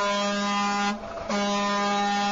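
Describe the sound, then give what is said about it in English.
A loud, sustained car horn blares, broken by a brief dip in the middle before blasting again, with no voices over it. “Or can I, like, if you're driving, give me a honk if you agree with me.”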